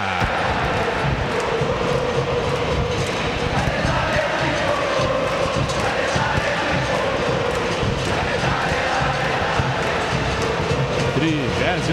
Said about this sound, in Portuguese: e a torcida gremista vai fazendo a festa aqui na arena.